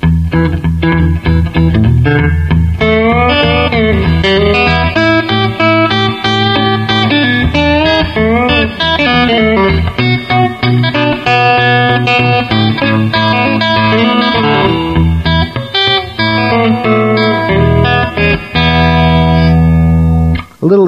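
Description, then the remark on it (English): A distorted electric guitar rips through a guitarist's turnaround lick, example 5 played fast, with quick bending notes and dense runs, loud, for about twenty seconds, no talking. “Anyway, here we go again on example 5, just fast, so you can hear it once.”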